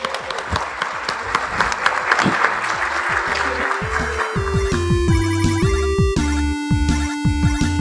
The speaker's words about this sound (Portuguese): Obrigado por mais um painel. Daqui a pouquinho tem outro, galera. Obrigado. Uma salva de palmas.